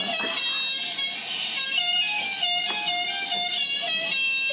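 A car horn blares in one long, unbroken honk lasting several seconds, loud, over a steady rush of background noise.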